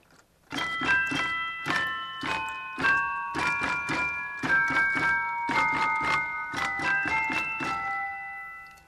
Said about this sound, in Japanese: こちらのオルガンには、うん、えー、アクセサリーと呼ばれる変わったストップがあります、はい、まずチェレスターが丸々入っています